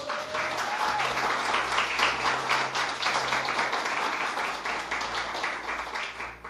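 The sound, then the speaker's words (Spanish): A church audience applauds for Jesus: a dense wash of many hands clapping at even loudness throughout, with a low steady hum underneath and no voices standing out. “Alguien que le dé un aplauso a Jesús por eso.”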